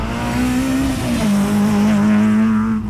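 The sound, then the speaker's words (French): A factory-built rally car, made for the world championship, roars loud at high revs on a road, reaching 180 km/h flat out in fifth gear, a steady buzzing drone that dips briefly in pitch before holding again, with no voices over it. “Avec cette voiture-là, sur les routes, là, on, prend 180 à fond de 5 donc ça va très vite.”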